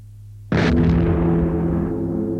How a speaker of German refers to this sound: Und durch diese metallische Verwandtschaft bekommt die Glocke eine heisere Schwester, die Kanone, zum Duett.